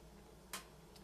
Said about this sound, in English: Mm-hmm but we are running out of time. This, That's this timer is ticking down.